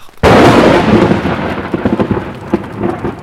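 A sudden, loud crack of thunder bursts out of near silence and rolls on as a heavy rumble for a few seconds, with a rain-like hiss underneath. No voices.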